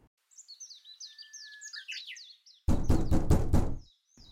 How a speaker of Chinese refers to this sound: 来了来了，别再敲了。这么大清早的，你想吵死谁啊？